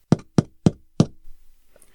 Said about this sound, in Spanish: Las transmisiones comenzaron el 6 de junio de 1941, un viernes a las 11 y cuarto de la noche, y se identificó con la señal Morse para la letra V, es decir, punto, punto, punto, guión.